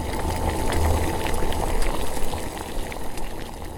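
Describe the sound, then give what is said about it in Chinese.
A big pot of water at a rolling boil, bubbling and churning steadily with a dense, continuous roar and scattered crackling pops, fairly loud throughout with no voices. “于是请两位哥哥提前生了火，煮了一大锅的滚烫的水，就等着大野狼下来。”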